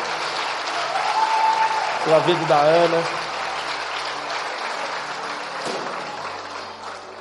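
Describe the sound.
An audience claps steadily throughout in a dense, continuous wash of applause, while a man speaks briefly over it near the start before the clapping carries on alone.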